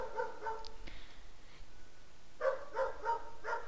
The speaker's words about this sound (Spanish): Ay, cállate Milka, por favor. Ay, no es Milka, es, es Kafka. Perdón, ustedes perdonarán, pero no sé a quién le está ladrando.